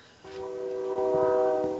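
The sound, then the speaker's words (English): A loud train horn blares, a sustained harmonic blast that starts abruptly and holds steady for over a second, with faint rumble of the passing train beneath. “Oh, uh, I appear to have walked onto a train track.”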